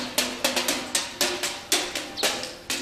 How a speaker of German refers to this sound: Aus diesem Zapfenstreich wurde mit der Zeit ein akustisches Signal speziell für das Militär. Das konnte mit einem Horn sein, mit einer Trommel